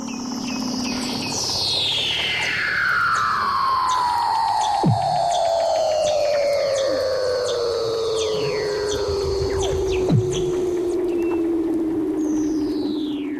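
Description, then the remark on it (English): Underwater seal calls: one long, loud trill sweeping slowly downward from high to low, layered with fainter gliding whistles, a steady high tone and two sharp clicks. “So apparently seals make sounds like fucking AOL booting up in 1997. That's like what seals sound like underwater.”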